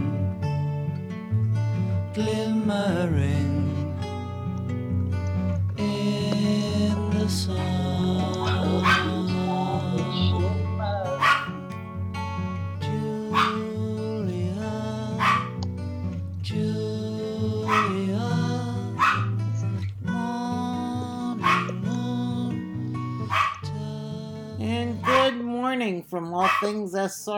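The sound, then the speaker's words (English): A dog named Walter barks repeatedly in short, sharp bursts, scattered irregularly over steady music playing in the background. “And Walter, I guess you can hear is wishing everybody a wonderful day.”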